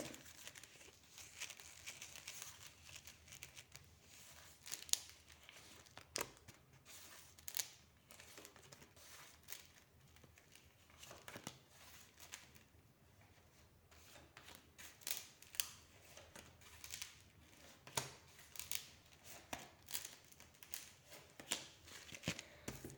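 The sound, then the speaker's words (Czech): Tarot cards being shuffled before a relationship tarot reading: a steady stream of dry, papery rustling and crinkling, broken by quick soft flicks and slaps at an uneven rhythm, fairly quiet and with no voices. “Už míchám karty, dívám se na vaše fotky a podíváme se teda na ten váš partnerský výklad.”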